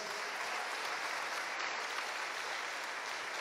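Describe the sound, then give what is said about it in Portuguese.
An audience claps for the Lord, a dense, even wash of applause that holds at the same loudness throughout with no voices standing out. “Então aplauda o Senhor mais uma vez.”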